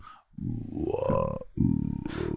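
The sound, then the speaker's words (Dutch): A voice imitates a very deep bass singer: a low, rumbling, sustained hum with a slight rising-then-falling pitch, broken by a short pause before a second gravelly low note. It imitates the very low-singing man of a band that sang a song in the Skull and Bones game segment. “Met een meneer die heel laag kon zingen.”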